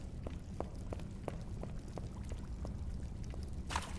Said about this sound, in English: There's a river down there.